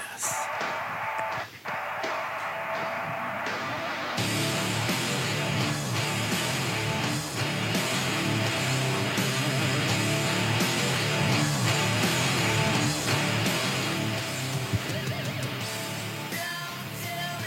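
A heavy metal song with squealing electric guitar, opening thin and filtered before the full distorted band crashes in loud and dense, playing continuously with no talk over it.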